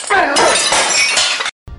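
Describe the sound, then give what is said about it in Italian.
A ceramic baking dish shatters loudly, a sustained crash of breaking and clattering shards lasting over a second, followed by a brief silence and a short burst of noise. “La mia tegliera preferita l'abbiamo rotta, poi l'abbiamo rincollata.”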